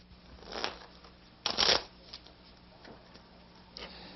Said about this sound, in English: If you gamble in Nevada or Atlantic City, that's a familiar sight, the shuffling of blackjack cards, usually accompanied by the sight of your money being swept in by the dealer at the end of the round.